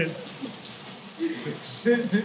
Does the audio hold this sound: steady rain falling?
yes